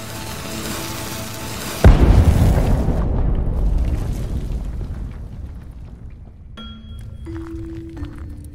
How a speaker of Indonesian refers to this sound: Tapi pintu guanya tertutup reruntuhan dan sudah berubah menjadi tebing yang keras. Bos, bagaimana kalau kita ledakan saja pintunya pakai bahan peledak yang kubawa? Ide bagus. Cepat ambil. Kita ledakan gua ini.